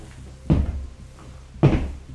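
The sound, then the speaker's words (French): A door opening, heard as two dull wooden thumps about a second apart, moderately loud, with a low rumble lingering after each and no voices. “Elle s'ouvrit en effet.”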